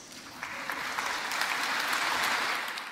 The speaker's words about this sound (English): you came together to find a pathway to a safe climate, and you will all be considered heroes, and you deserve a huge round of applause.